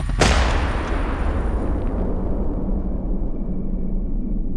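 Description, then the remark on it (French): A single loud carbine gunshot cracks out at the start as Sean fires at his wedding, followed by a long, low rumbling echo that slowly fades. No one speaks. “Malgré les cris de Madonna, Sean pointe son arme vers eux et tire, sans hésitation.”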